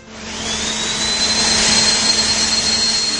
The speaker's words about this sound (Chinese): 我们现在所听到的这段噪音，出自坚果兄弟为自己所记录的吸尘影像。在这条短片里，我们可以看到他推着那台巨大的机器在北京城里到处游走。整个片子没有一句台词，只有这刺耳的噪音声。